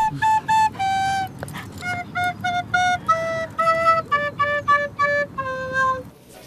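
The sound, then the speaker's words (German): A simple children's tune played on a recorder: about a dozen short, clear, high notes stepping up and down in a steady rhythm over a low, steady background rumble. “das bekannteste deutsche Kinderlied, auf der Blockflöte spielen”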